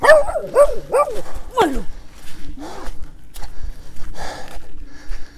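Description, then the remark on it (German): Several sharp, high-pitched barks and yelps in quick succession from two dogs, one no bigger than a hare, as a pedestrian walks past, then quieter shuffling, sniffing and footsteps as the commotion passes. “Oh, da kam ein Fußgänger, zwei Hunde.”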